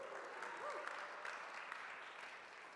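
Steady applause from an audience fills the whole moment, a dense wash of many hands clapping at once, with a faint cheer or voice rising briefly near the start.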